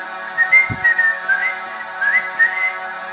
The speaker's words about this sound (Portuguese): essa criatura ela aparece em seus sonhos e antes de acordar senta nos seus peitos e causa tormento na mente da pessoa com assobios. Assobios.